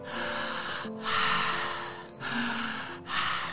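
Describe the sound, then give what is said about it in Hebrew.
Slow, deep breaths drawn in and pushed out through the mouth during a breathing exercise, loud, in about three steady airy cycles with brief pauses between them and no talking. “אז ניקח נשימות עמוקות יותר.”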